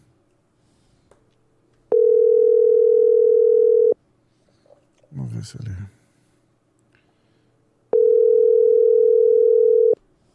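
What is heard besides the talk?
telephone ringing tone beeps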